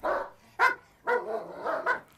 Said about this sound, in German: Die Hunde bellen. Einer bellt immer.